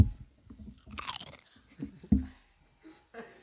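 Crisp crunching of potato chips being bitten and chewed, a loud bright crunch burst followed by a few softer irregular chews and mouth sounds.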